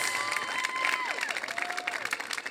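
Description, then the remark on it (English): A large church audience at Rise Church's two-year anniversary claps and cheers steadily to thank the church teams and volunteers, sharp whistles rising and falling above the dense, continuous applause. “Come on, like make some noise, let them know you're thankful.”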